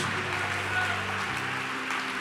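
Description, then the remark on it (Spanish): An audience applauds God with steady, dense clapping that holds an even level throughout, while sustained low musical tones hum beneath it. “Deberías aplaudirle más que eso todavía.”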